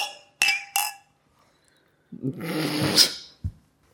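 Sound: drinking glasses clinking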